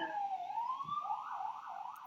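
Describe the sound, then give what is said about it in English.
A fire truck siren on the hills wails steadily, its pitch rising and then warbling up and down as the truck passes, with no voices over it. “There's some my big fire truck going by or an ambulance.”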